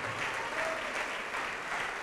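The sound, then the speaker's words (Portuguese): A church audience applauds to the Lord as a person comes forward to give their life to Jesus, a steady dense wash of clapping at moderate loudness without pause, with no one speaking over it. “Vamos aplaudir ao Senhor, vem para cá.”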